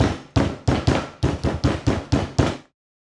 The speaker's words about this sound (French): Deux heures plus tard, il arrivait tout essoufflé à la porte de la maisonnette et frappait à la porte. Pas de réponse. Entendant croître le bruit des pas et de la respiration haletante de ses persécuteurs, il frappa plus fort.